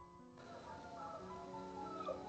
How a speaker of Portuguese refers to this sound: Cara, Pô, tô conseguindo esse ouvir. Esse galo tá bravo, hein?